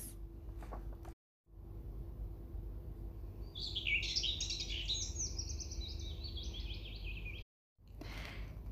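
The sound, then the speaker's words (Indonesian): A small, lively bird chirps in a quick, fluttering run of high twittering notes lasting a few seconds, fairly clear over a low steady hum. “Cicit seekor burung yang lincah.”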